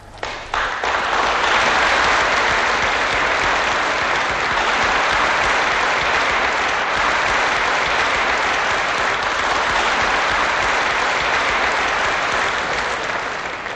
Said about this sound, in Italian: Beh, eh, di questo battimani, no? Di questo applauso di sortita che in fondo emoziona sempre, fa pensare.